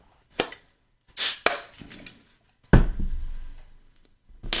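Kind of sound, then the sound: food or drink, beer bottle being opened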